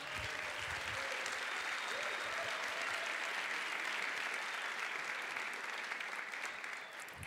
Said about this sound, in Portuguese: Dá uma salva de palmas para Jesus, pelo amor de Deus.